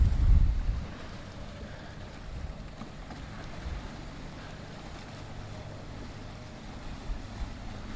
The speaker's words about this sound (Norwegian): Kommer det en liten båt som heter Baronen, tror jeg? Eller er det Baronessen? Nei da, det var Baronen.